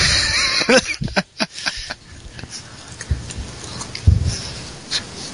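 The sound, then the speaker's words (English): A few short, harsh coughing bursts come in a quick cluster, then a couple more spaced out later, mixed with breathy sniffs and low rustling, with no talking. “mm, sorry, I had to cough.”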